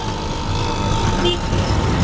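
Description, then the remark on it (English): Dense road traffic in New Delhi, India, rumbles steadily and loudly, with engines droning and a brief higher tone cutting through the busy wash of vehicle noise. “for me, I think I can understand human nature and, and my place in the universe a little bit better in the, hecticness of all this traffic than I could by sitting still for 10 hours.”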